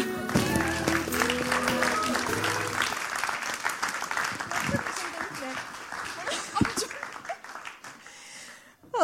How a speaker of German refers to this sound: du bist grandios und geben wir ihr einen großen Applaus. Du bist das geilste Geburtstagskind ever.